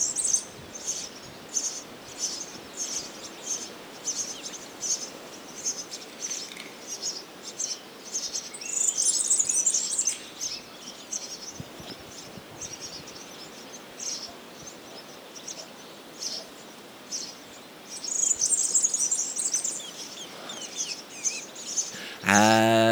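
A European serin sings in two high, jangly, buzzing bursts like a rusty bike chain, set against a steady background of chirping insects outdoors; no one speaks.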